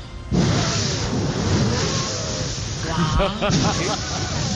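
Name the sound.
motorcycle engine revving past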